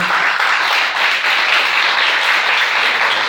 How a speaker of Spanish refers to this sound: Denle la aplauso al Señor esta noche, por favor.